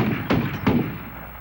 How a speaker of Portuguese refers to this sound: É muito bom que eles estão fazendo teste com o morteiro.